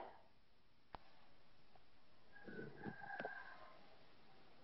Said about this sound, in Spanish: Escuchamos al gallo.